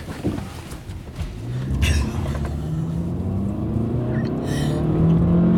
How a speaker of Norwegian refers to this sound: Da bør du forte deg veldig, for det kommer bil bak oss. OK, OK. Ja, ja, ok, fort. Det kommer bil til.